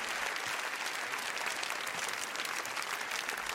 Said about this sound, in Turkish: Ahlat Ağacı filminin ilk gösterimi 71. Kan Film Festivali'nde yapılıyor ve filmin gösteriminden sonra neredeyse 10 dakika boyunca film ayakta alkışlanıyor.